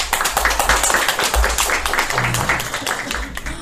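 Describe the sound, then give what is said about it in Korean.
An audience claps steadily for a few seconds as poet Son Mi, Kim Su-young Literary Award winner, is invited up; many hands blend into a dense, even patter that stays loud throughout, with faint voices mixed underneath. “왜 손미신 모신다고 할 때만 박수를 치지?”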